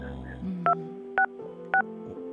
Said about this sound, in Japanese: 聞こえましたピッポパっていうのは今聞こえました。僕聞こえました。